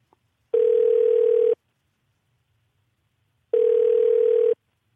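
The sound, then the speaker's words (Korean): A telephone calling tone, placed to an anonymous listener during radio DJ Park Myung-soo's call-in segment, sounds twice, each a steady, mid-pitched one-second hum, separated by about two seconds of silence. No one speaks. “025님 전화 한번 걸어보겠습니다.”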